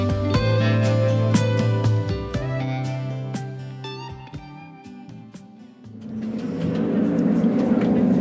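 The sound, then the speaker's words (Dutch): A bus driving on the road from the airport in Athens to a resort: its engine hums and drones, its pitch stepping and shifting as it drives, with scattered clicks and rattles, then giving way to a broad, steady rush of road noise. “water drinken als je onderweg bent van de bus.”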